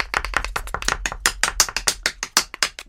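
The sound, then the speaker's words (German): Rapid, sharp tapping in a studio imitates a green woodpecker's drumming: two dozen or so crisp knocks in quick, slightly uneven succession, fairly loud, with no voices over them. “Okay, also, habt ihr mal Lust, dass wir mal hier im Studio versuchen, wie so ein Specht das zu machen?”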